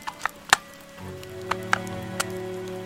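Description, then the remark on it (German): Pouring rain falls steadily at a harbour as the ship João Bruno II leaves port, with a few loud drops striking a hard surface at irregular moments over a soft hiss, as a low droning engine hum starts up partway through. “Im strömenden Regen verlässt das Schiff den Hafen.”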